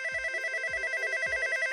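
A telephone rings with a steady, warbling electronic trill, accompanied by soft low thuds recurring roughly every half second. The ring is continuous, with no one speaking.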